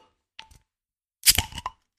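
A beer bottle is opened: a small metallic click, then a short, sharp pop with a hissing fizz of escaping gas, lasting about half a second. No one speaks.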